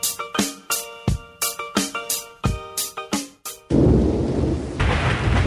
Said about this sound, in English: Oh man, that is some kind of weather we got out there. Jeez, we're gonna flood.